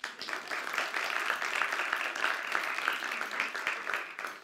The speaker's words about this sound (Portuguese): Nós temos a, eh, a felicidade deste ano ter mais mulheres aqui no palco do que homens. Uma salva de palmas para nós.